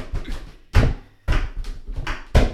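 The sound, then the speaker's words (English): A fork clatters into a drawer as dishes are put away in a house: several sharp metallic knocks and rattles in quick succession, with a brief ringing after one of the louder hits, and no voices. “And that was like one fork that just went away in the drawer.”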